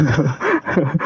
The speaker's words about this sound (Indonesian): di ini suara suara perut siapa nih? Gue gue lapar banget gue lapar banget. Kedengeran ya? Maaf maaf maaf.